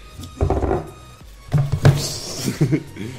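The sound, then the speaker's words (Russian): A drinking glass gets knocked, giving a few dull thunks and clatters in quick succession, followed by a brief brighter rattle, moderately loud with no talking. “Вот трахнуло мой стакан и быстро улетело.”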